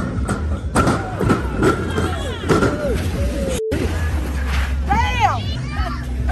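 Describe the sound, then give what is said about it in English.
A busy, echoing crowd of people shrieking and whooping on a giant slide in Detroit, with repeated heavy thuds and bumps as riders bounce down, and high excited screams rising above the steady hubbub. “And even though riding that giant slide can sound like this.”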